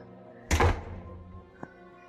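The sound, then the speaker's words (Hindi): A door swings shut with a single solid thud that rings out briefly, followed about a second later by a faint click like a latch settling. No one speaks. “हाँ लेकिन टेंशन मत लो तुम दरवाज़ा बंद करके आराम से लेट जाओ”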